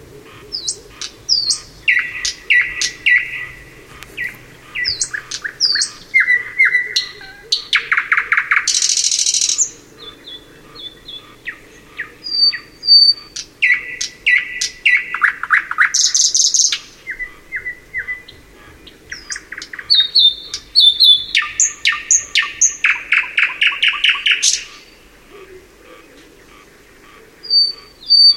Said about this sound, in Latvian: pirmais izpildītājs būs Lakstīgala, tāpēc sāksim ar Lakstīgalas dziesmu.